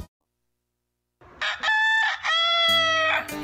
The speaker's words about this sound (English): do you know what Tony the Rooster is telling you?